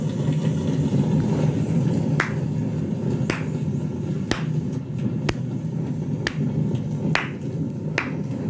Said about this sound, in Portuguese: Além de encontrar Joshua e os lobos, Rafa está no seu lugar, encarando todos, e quando me vê, começa a bater palmas.